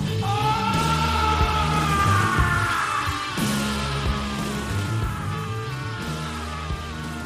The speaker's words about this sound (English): It is the greatest screams I ever heard on any song. The sickest screams, especially those final screams in that final um, God, it's so cool. Check it out. This, I love it. I love this part, how it ends.